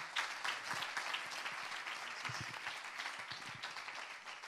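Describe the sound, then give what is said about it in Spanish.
Sustained audience applause for an apostle, given in the morning: a dense wash of many hands clapping steadily at an even, loud level for several seconds, with a few sharper individual claps standing out. “Let us give a strong applause to our apostle”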